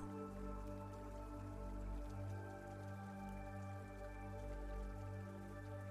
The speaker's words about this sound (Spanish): Y continúa disfrutando de esta lluvia y de una gran paz interior.